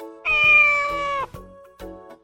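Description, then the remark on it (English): A single loud, drawn-out cat meow lasting about a second, clear, followed by a few faint soft knocks and rustles, with no one talking. “This is a cat.”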